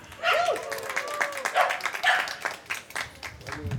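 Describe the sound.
An audience claps steadily for a few seconds, a dense patter of many hands at moderate distance, with scattered voices and a brief whoop rising over the applause.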